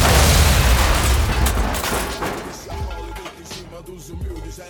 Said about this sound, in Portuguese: Depois da explosão mental que aconteceu no Maternal em junho, Marquinho, coloque aquele efeito de explosão.